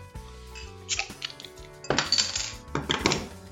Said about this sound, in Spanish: la vamos a servir aquí en mi vaso cervecero.